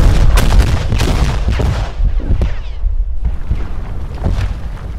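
A rapid barrage of loud explosions, blasts overlapping in a dense, rumbling roar with heavy low-end thuds and crackling bursts that continue without pause throughout.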